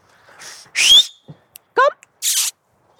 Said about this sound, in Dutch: Nou, komt hij aan. Fluiten helpt altijd.